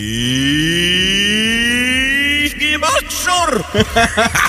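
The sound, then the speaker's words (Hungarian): A voice recording played in reverse: a long, drawn-out vocal tone slowly rising in pitch, then a burst of garbled, choppy syllables with odd swelling onsets. Loud. “Na most megmutatjuk, hogy ugyanez, hogy szól visszafelé.”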